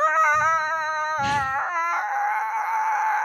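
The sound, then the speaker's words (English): A person vocally imitates the loud squealing brakes of an unsafe car on a road in Florida as its driver hit the brakes: a sustained, high, wavering squeal lasting about three seconds, unbroken apart from a brief breathy rasp midway. “I mean, this shit was like, this man hit the brakes, and this shit was like.”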